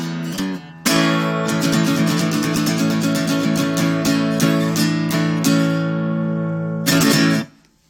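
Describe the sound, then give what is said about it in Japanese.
A self-written upbeat song, not yet released on CD, plays loud, with steady punchy drum hits over sustained bright chords, building to a final held chord that cuts off abruptly. “聞いていただいたのは、まだ CD にもなっておりません。”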